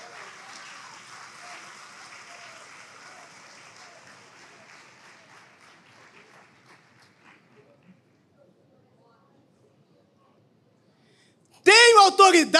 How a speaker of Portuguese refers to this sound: Você pode levantar as suas mãos e aplaudir a Jesus, meus irmãos?